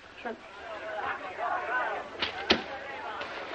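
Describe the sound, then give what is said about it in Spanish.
A missal is shut with a brief, muffled slap, preceded by a couple of soft taps, while a low murmur of voices praying the rosary carries on underneath. “Cierra el misal.”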